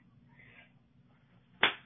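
One sharp, loud slap cracks out near the end after a stretch of faint low background hum, its impact quick with a brief tail.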